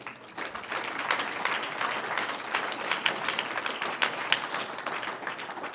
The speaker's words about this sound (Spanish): Un aplauso al Señor.